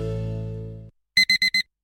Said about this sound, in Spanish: Pasarse al Seat León híbrido con Seat Flex es tan fácil como posponer la alarma.